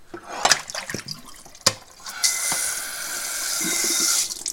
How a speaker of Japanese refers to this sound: 今日ね朝朝ごはんの後ね食洗機を回さずに置いたの回さずに置いたのでここに足して今日今お昼を食べた僕の食器を足してこれで食洗機を回す